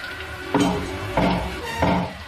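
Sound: knocking on a door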